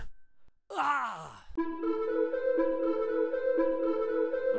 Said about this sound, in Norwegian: krøker seg sammen og lager en kvalt lyd langt bak i strupen.